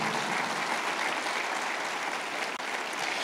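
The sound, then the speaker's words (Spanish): An audience at an evening church service applauds the Holy Spirit together in a steady, dense wash of clapping that holds at an even loudness for a few seconds without any voices over it. “Dale un aplauso al Espíritu Santo en esta noche.”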